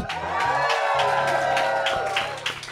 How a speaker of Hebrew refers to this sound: ואנחנו לא לבד, יש לנו פה קהל חי, תשמיעו קולות.